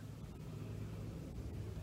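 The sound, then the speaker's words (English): Steady low rumble from inside a Dodge Ram pickup truck cab, a continuous engine and road drone at even loudness throughout, with no voices or distinct events. “I'm still in my Dodge Ram pickup truck”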